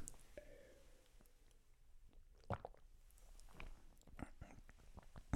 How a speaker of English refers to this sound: And so, with hydration, I'm about to take a sip of water.